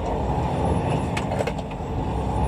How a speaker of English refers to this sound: He brings us through his gear shifting on his 10 speed truck.